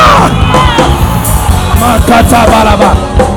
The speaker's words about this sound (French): Donc, quand je dis élargissement, tu dois crier yes! Élargissement!